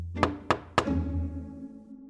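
Three firm knocks on the wooden door of an apartment in an exclusive apartment block, evenly spaced about a quarter second apart, resonant, with a low hollow ring lingering after the last one.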